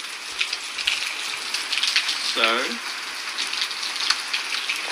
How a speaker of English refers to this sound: quite a lot of rain. It's not flooding because the drainage system here is quite good.